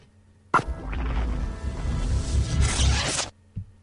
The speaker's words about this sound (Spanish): Os ha gustado esa entrada, ¿eh? Oye, parecía una cremallera, ¿no?